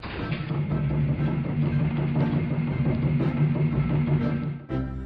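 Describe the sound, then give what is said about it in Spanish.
An old car, taken out for a drive, chugs and rattles steadily with a low, rough hum and a busy rhythmic clatter, holding loud for about four and a half seconds before cutting off abruptly. “Y el coche hacía...”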